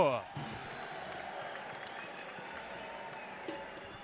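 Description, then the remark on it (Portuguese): Guarani football supporters (Guaragolo) roar steadily in a stadium as the team enters the field on 9 March, a dense wash of cheering and clapping that holds a constant level, briefly swelling near the end. A voice is heard at the very start. “Estamos aqui pertinho da torcida do Guarani, pertinho da Guaragolo. Escutem aí.”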